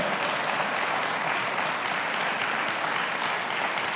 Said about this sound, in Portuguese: Levanta a tua mão e diga em Cristo Jesus. Diga mais forte. Então aplauda Ele bem forte, de todo o teu coração.